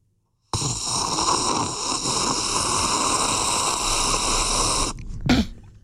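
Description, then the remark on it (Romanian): A long, loud slurp of the first mouthful of coffee, about a centilitre, one continuous airy sip lasting several seconds, ending with a brief sharp breath or swallow. No one speaks. “te rog să savurezi prima gură de cafeloi ca să le dai curaj ascultătorilor să ne trimită mesaj vocal cu reacția pe care o au când uh, iau prima gură.”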